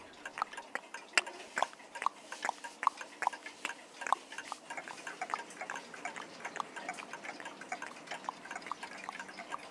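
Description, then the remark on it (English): A clock ticks steadily throughout, a rapid run of small, crisp clicks at fairly low volume, heard alone with no one talking. “It's the ticking of the clock.”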